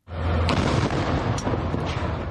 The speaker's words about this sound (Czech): Zveřejnil i záběry, které mají ukazovat střelbu z budovy školy OSN na severu Gazy.